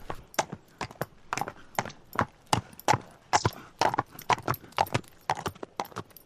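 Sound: horse hooves galloping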